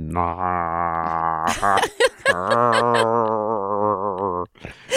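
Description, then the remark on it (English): A person gargles someone's name in a long, rough growl, like a playful dog growling during tug of war with a sock, in two sustained stretches broken by brief bursts of breathy vocal noise. “You're gargling my name. I've become a mouthwash. That's the sound my dog makes when we're playing tug of war with a sock.”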